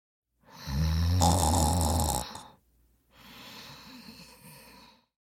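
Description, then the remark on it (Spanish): A Guaraní man, back at his house and asleep, snores loudly: one long, rumbling inhaled snore followed by a softer, breathy exhale, with no talking. “El hombre guaraní volvió a su casa y se durmió.”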